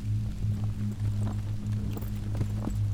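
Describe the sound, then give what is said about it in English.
Donkey hooves clip-clop at an unhurried, slightly irregular pace over a steady low droning hum as a man leaves with his donkey to travel to the next village; the hoofbeats are fairly soft, with no voices. “He took his donkey and left, starting the journey to the next village.”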